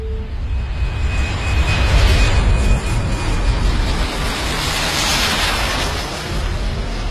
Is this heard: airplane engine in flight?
yes